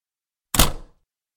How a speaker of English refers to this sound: I locked the door to Ernie's apartment behind me.